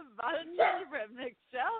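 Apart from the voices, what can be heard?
dog barking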